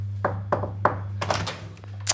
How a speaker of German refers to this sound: Und die hasst es, wenn ich sie ähm, dabei unterbreche. Ich finde es aber aber irrsinnig lustig, das trotzdem zu machen. Deswegen klopfe ich jetzt einmal kurz.